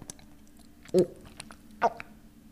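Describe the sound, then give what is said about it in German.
Two loud gulping swallows, each a short wet throaty clunk, spaced just under a second apart against a faint, steady background hum. “es wird über mich lustig hab, gemacht, weil ich laut schlucke.”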